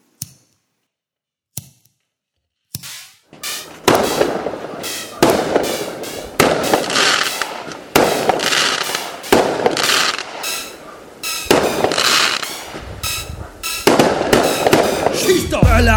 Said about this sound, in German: Und das ist Böllern, Knallern, Raketen.